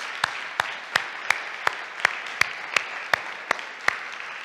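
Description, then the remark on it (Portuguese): A standing audience applauds the Lord Jesus Christ, clapping together in a steady, even rhythm of about eleven sharp beats over a dense wash of scattered clapping. No one speaks. “E assim como estão de pé, dê um aplauso ao Senhor Jesucristo, a nosso Senhor Jesucristo.”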